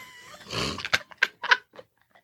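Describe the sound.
A person imitates a growling dog: a rough, raspy growl followed by several short, snarling bursts, loud and alone with no talking.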